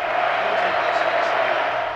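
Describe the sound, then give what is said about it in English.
A steady, dense roar of a large football stadium crowd during a game, heard through an open broadcast booth window, a continuous wash of many voices blending together with no single speaker standing out, holding at an even level throughout. “The booth is professional with a full view of the field and a window that opens to let in the crowd noise.”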